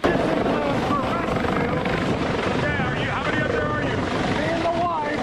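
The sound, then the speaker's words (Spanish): A US Coast Guard rescue helicopter's rotor roars steadily and loudly during a hurricane rescue on Sanibel Island, as residents and their pets are lifted up in a cage; a dense, constant wash of noise with faint voices calling out beneath it. “Primero ponen a su esposa y a uno de sus tres gatos en esta jaula que los sube al helicóptero.”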